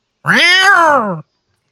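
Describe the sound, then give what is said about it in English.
A single drawn-out meow from a jet black cat, loud, about a second long, its pitch rising then sliding down before cutting off into silence. No hiss is audible. “Hisses at you and, and meows at you and stuff like that.”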